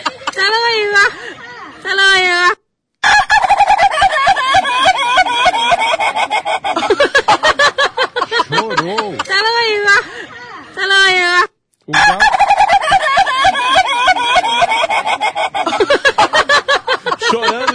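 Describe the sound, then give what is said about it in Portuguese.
A rooster crows loudly and repeatedly, its long wavering calls dense and overlapping, with brief gaps between bursts and other fowl clucking underneath. “Se eu não visse, se eu não tivesse vendo essas imagens aí, e nas imagens vendo que é um galo, eu pensaria que era um peru.”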